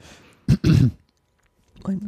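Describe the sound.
A sharp cough followed immediately by a rougher throat clearing, then a brief silence before a voice starts speaking.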